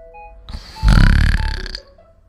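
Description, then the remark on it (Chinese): A voice imitates a single long, loud, rasping snore lasting about a second, its pitch wavering up and down before it fades out, as the snoring of Little Mole's older brother in a children's story. “呼，呼噜声啊，有时高有时低。哼，这一定是哥哥的呼噜声。”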